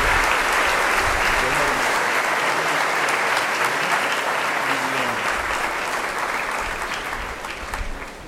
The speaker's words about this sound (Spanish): Y les vamos a dar un fuerte aplauso a estos chicos que el día de hoy están haciendo su segunda comunión.